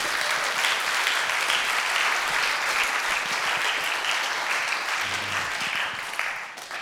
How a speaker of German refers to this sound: Eigentlich müsste man diesem guten Applaus geben.